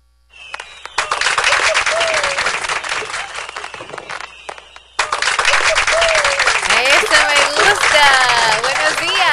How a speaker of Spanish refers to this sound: Medio aplausos, medio.